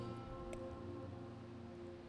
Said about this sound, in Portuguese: deixa eu só acender aqui rapidamente. Vamos ver se vai ficar com vento. O vento está apagando.